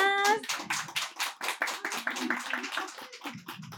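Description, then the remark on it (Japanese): A crowd applauds steadily, dense overlapping hand claps forming a continuous crackling wash that holds at an even level throughout, with a brief tonal voice fragment at the very start. “それではもう一度拍手をお願いいたしま”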